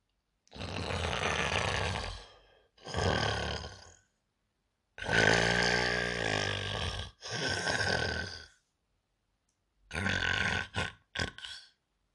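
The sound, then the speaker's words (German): Loud, exaggerated snoring of a wolf lying asleep in bed, imitated by a human voice, comes in rasping, grunting breaths, in-out pairs with short pauses between, alone with no talking. “Wie der Wolf sein Gelüsten gestillt hatte, legte er sich wieder ins Bett, schlief ein und fing an, überlaut zu schnarchen.”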